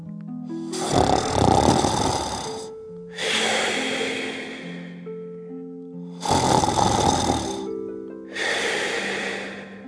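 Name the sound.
loud snoring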